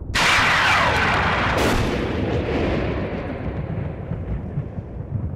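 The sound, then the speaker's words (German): A loud lightning strike in Elmshorn, by a children's daycare, hits with a sharp crack. A second burst follows moments later as a heavy rumble rolls on and slowly fades over several seconds. “Da sieht er ein helles Licht aufblitzen, gefolgt von einem lauten Knall.”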